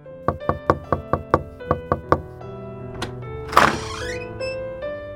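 Urgent knocking from outside on the door of a study: a quick, even burst of about nine sharp raps, then a lone knock after a pause, followed by a brief scraping creak as the door seems to open.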